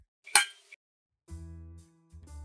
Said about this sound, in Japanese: 乾杯